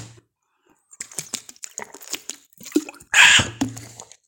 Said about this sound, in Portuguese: Não, deixa eu beber uma água que eu tô falando rato.